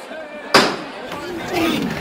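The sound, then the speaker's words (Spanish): A single sharp metallic knock from a float's knocker rings out once, loud and abrupt, then fades while voices and crowd murmur continue underneath. “Ahí suena de nuevo el llamador.”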